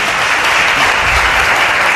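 Steady, dense applause from an audience in Málaga welcoming guest Sergio del Molino, a continuous wash of many hands clapping at once without pause, loud and even throughout.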